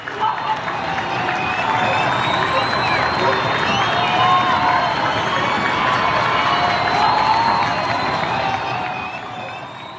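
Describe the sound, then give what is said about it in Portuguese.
Many people in cities across Brazil applaud health professionals from their windows in a steady, dense wash of clapping, mixed with cheering and shouted voices. The noise holds at an even level for the whole stretch. “Pessoas de diversas cidades do Brasil foram às janelas aplaudir os profissionais de saúde que estão se empenhando, continuam se empenhando e se arriscando para salvar vidas.”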